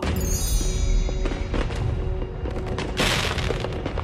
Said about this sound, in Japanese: うわとにかくでっかいのがたくさんすごいすごい夜空が花火でいっぱいになっちゃった